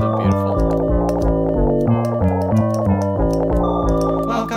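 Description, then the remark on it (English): A short, upbeat intro jingle for the Fishy Report segment of a show plays loud and up front, with a bouncing bass line stepping between notes and crisp percussion ticking along steadily. No one speaks over it. “The sound told you what that sound is.”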